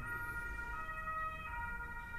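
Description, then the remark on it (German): An ambulance siren wails outside, its steady tonal notes holding over low traffic rumble, moderately loud with no talking. “Oh, hier draußen ist wieder Einsatz. Alarm. Alles im Griff. Kommt durch, der Krankenwagen.”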